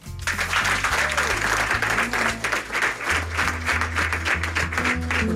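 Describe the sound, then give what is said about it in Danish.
A studio audience applauds loudly and steadily as a singer takes the stage, a dense wash of clapping for several seconds, with low musical tones sustained underneath. “Alle sammen tager rigtig godt imod”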